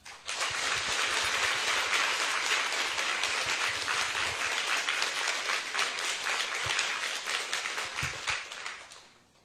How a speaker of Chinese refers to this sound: 再次把掌声给你自己。